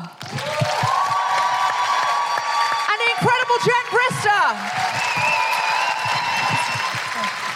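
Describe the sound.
An audience at a live show claps and cheers in a dense, sustained roar of applause for two speakers, with a voice speaking over it and a few whoops rising above the clapping.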